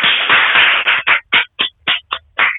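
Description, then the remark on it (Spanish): A group of elderly residents of a care home applauds: a dense burst of clapping for about a second that thins into a handful of separate, spaced claps before stopping. No one speaks. “ahora quiero que recibas este aplauso de parte de mis abuelos a ti.”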